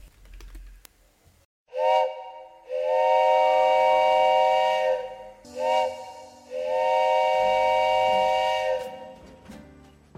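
Two long steam train whistle blasts, each preceded by a short toot, standing for the happy little engine in the story 'The Little Engine That Could', with a bright, harmonic, steady tone over a hissy background; no talking.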